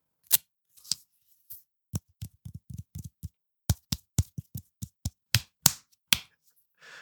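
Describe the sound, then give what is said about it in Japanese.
Crisp tape handling: a quick run of sharp slaps, taps and crackles in an uneven rhythm, with a couple of brief rasping rips near the end. No one speaks. “何それ何それな、何それ何のテープそれガムテ養生お急な ASMR。”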